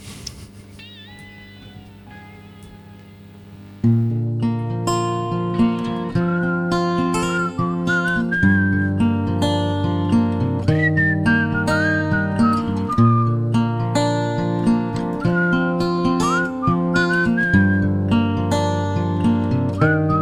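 A song opens with a soft, wavering whistled melody over quiet accompaniment, then a full band comes in loudly at about four seconds while the whistle-like tune carries on above it.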